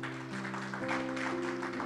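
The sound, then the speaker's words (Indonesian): A crowd claps steadily in a dense wash of applause, with a sustained low musical tone humming underneath throughout. “Berikan tepuk tangan.”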